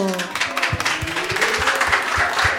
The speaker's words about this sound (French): Applaudissez-vous très très fort Argenteuil s'il vous plaît.